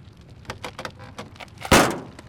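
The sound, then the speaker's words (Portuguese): Quick metallic clicks and rattles as someone repeatedly yanks the handle of the jammed door of a crashed, burning car with its driver trapped inside, ending in a loud, heavy thud against the door that rings out briefly. “A porta está travada.”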